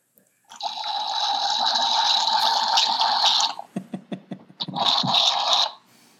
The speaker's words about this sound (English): what we're all going to hear here is the sound of red wine going through an aerator